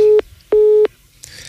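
A telephone busy tone after a listener's call to the show dropped: two loud, steady, low-pitched beeps in an even on-off rhythm, followed by a faint hiss of line noise.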